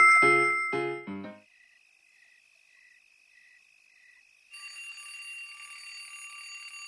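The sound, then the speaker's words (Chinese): A bell rings at one o'clock in the morning: three bright chiming strikes, then a run of faint, evenly spaced high beeps, then a loud, continuous shrill ringing that holds steady to the end. No one speaks. “现在是凌晨一点钟，怎么会有铃声？”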